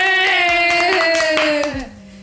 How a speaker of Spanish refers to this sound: Aplauso de nuevo.